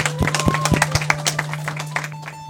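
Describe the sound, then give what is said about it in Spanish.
A crowd at a community event in Pampaconga, Limatambo district, Anta province, breaks into loud, dense applause, many hands clapping irregularly at once, with a steady low electrical hum underneath that continues as the clapping thins out toward the end. “Esos aplausos, fuertes palmas.”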